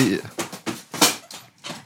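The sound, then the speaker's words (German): Indistinct chatter and activity from a group of people at a small staff Christmas party, a busy murmur of several voices in bursts, fairly quiet, in the background. “Man hört hinten im Hintergrund geschäftiges Treiben.”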